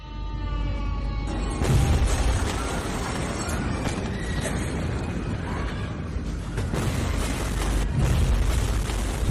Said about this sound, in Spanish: Hace un año de que este atronador sonido se grabara en la memoria de los libaneses. Justo esta semana se cumple el triste aniversario de la explosión accidental en el puerto de Beirut, que dejó más de 200 muertos y 6.500 heridos